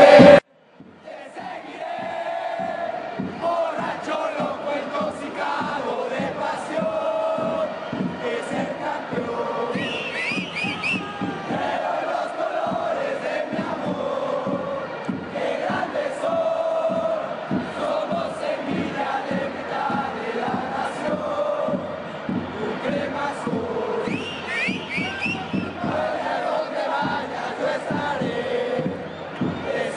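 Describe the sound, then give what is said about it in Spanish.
Football fans chant a team cheer, the chant 'Vaya donde vaya, yo estaré', coined in Colombia, in unison, a big crowd singing a repeated melodic refrain with steady rhythmic accents, loud and continuous for the whole stretch. “Y a mí me perdonan, pero esa, porra me recuerda una canción, no sé cuál, pero me recuerda una, una canción.”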